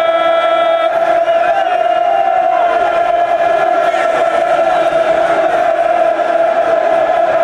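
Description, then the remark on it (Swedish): A loud, unbroken roar from a football crowd, thousands of voices blending into a steady droning chant that holds a sustained pitch throughout without pausing. “Det är det här bruset som, som de gör ifrån sig.”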